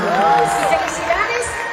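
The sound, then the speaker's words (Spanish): An audience bursts into loud applause and cheering, a dense, steady wash of clapping and excited shouts with a few high, rising whoops riding on top, lasting just under two seconds. “Un aplauso para mi buen que gracias.”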